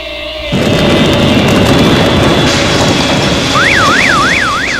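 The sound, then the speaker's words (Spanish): A massive explosion at 3:45 in the early morning of 14 December 1982 bursts in after a brief quiet moment, shaking a residential building, giving way to a loud, sustained roaring rumble, with a wailing siren rising and falling over it toward the end as alarms go off. “La madrugada del 14 de diciembre de 1982 a las 3.45 una explosión sin precedentes sacude el edificio donde vivimos.”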